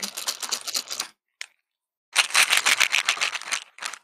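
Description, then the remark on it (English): A small plastic medication container, almost empty at the end of the week, rattles as a few loose pills are shaken, two bursts of brisk clattering separated by a short pause, fairly loud with no talking. “No, you got you got to shake it so they know. It's almost empty because it's the end of the week, but ASMR.”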